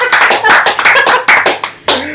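A short burst of applause from a handful of people for the show's editor, brisk irregular claps overlapping loudly for about two seconds, with no talking.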